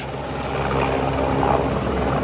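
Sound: helicopter rotor noise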